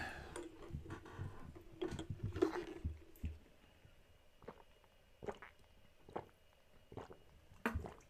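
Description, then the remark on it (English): Someone takes a drink of water, with soft gulps and swallows early on, then a series of quiet wet clicks and ticks spaced out over several seconds, with no talking. “For this, I must take a drink of water.”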